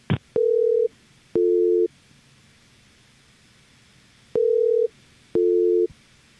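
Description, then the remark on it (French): A telephone ringing tone plays while a call is transferred at the office of the Premier of Quebec, in two double bursts, each a steady electronic hum, separated by a long pause over faint line hiss, with a brief click at the start. “Je transfère votre appel.”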